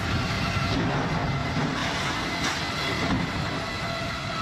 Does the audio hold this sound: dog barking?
no